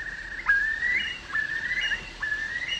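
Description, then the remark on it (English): A curlew calls with a series of clear, rising whistled notes, repeated about four times in quick succession, each swelling upward in pitch; no voices, just the bird alone. “My favorite singing voice is the voice of a curlew.”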